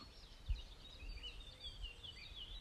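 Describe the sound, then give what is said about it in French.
A green woodpecker calls, a thin wavering series of high notes drifting over a low, rumbling outdoor background with no voices. “Encore le pivert qui se présente.”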